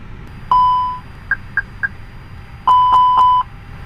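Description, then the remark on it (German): Electronic aircraft cockpit self-test beeps as the pilot powers up the systems on external power: a sustained tone, three short bleeps, then a longer tone pulsing several times, clear over a faint background hum. “Das sind Selbstteste, die jetzt der Flieger von alleine durchfährt.”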